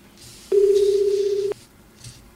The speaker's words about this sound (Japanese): あ、ちょっとね、ドキドキしますね、この感じ。太平洋上のどこかの電話が鳴ってるわけですよね。